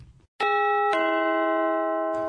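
A bright two-note ding chime, the second tone struck just after the first and left ringing out clearly for a couple of seconds with no one speaking.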